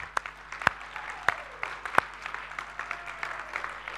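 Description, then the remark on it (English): A church audience gives a round of applause after a prayer, a dense wash of many hands clapping steadily, with a few louder, sharper claps standing out over the crowd. “Well, why don't we give those people a round of applause?”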